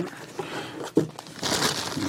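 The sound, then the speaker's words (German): Continuous rustling and crinkling of a plastic bag as a cardboard box packed inside another box is unpacked, holding Lexi B2 hearing aids powered by Bose sent for testing, with a sharp thump near the middle and brighter crackling toward the end. “Zwei Hersteller haben zugesagt, mir Geräte zum Testen zu schicken. Karton im Karton,”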